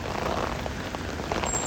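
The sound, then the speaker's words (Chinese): Rain from a summer rainstorm falls steadily, a dense even hiss with scattered soft patters of drops on a surface, moderate in strength, with no voices. “这个雨在夏天的暴雨里面不算暴。”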